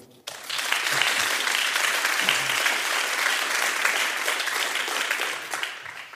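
Sustained audience applause for a guest who came from Ukraine, a dense, steady wash of many hands clapping that starts abruptly, holds at an even level, then begins to thin out at the end.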